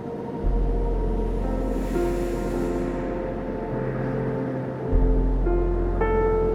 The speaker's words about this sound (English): Breathe now and find the calming rhythm of the waves.